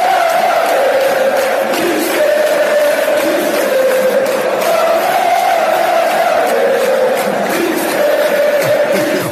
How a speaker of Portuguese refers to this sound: deslumbraram de tal maneira o público do Maracanã que, a dada altura, a torcida do Flamengo desatou a gritar. Como é difícil dizer Jesus, é difícil. e muitos milhares ao mesmo tempo pode ser uma coisa estranha. Eles gritam Mister.